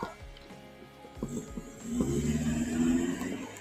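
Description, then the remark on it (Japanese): A car engine rumbles, a low steady drone that swells louder partway through and holds as the vehicle moves off. “車が。”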